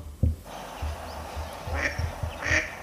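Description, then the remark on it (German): A mallard duck quacks a few times in quick, uneven succession, moderately loud, over a low rumbling background with soft thumps. “die quaken genau wie die Stockenden.”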